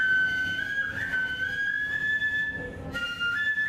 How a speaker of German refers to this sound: Eine Freundin von Okasan spielt ein Stück auf der No-Flöte vor.